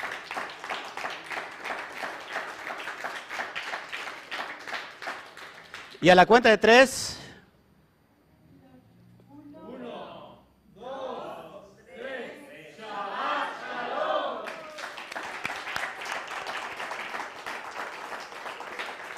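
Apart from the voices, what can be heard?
strong audience applause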